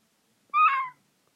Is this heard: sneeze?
no